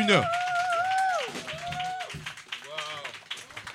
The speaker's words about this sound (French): Euh, c'est, euh, s'il vous plaît, applaudissez-le pour le rendre à l'aise.